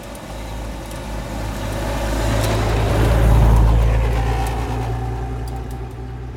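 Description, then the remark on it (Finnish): A car approaches with a rising rumble and road hiss, peaks in a short, dull swell as it passes by around the middle, then fades away again, with no one speaking. “Auton lähestyvä kohina, rahina ja lyhyt tylppä huipennus kohdalla.”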